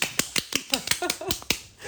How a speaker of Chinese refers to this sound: 掌声欢迎。